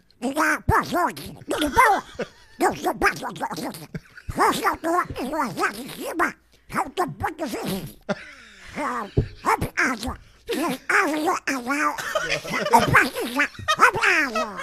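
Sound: cartoon duck voice imitation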